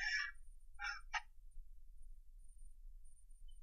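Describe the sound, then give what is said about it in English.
A voice imitates a duck, giving three nasal quacks: one longer call, then two short ones close together, fairly loud, with a faint low rumble underneath and no talking. “I just hear a duck.”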